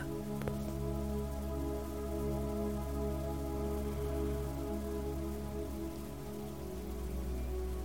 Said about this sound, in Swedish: Och fokusera på ljudet av regnet. Lyssna noga. Hur låter det när regnet träffar olika ytor? Notera ljudets rytm, intensitet